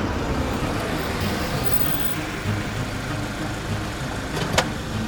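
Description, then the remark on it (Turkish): A vehicle rumbles steadily along a bumpy dirt road near Istanbul, Turkey, after leaving the TEM highway, its low engine drone and road noise constant throughout, with a brief sharp rattle or knock near the end. “İstanbul'u asfalt bir ırmak gibi boydan boya geçen temden ayrılıp toprak yolda beş dakika kadar sarsılarak ilerledikten sonra”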